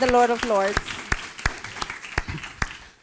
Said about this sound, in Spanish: ese fuerte aplauso al Rey de Reyes y Señor de Señores.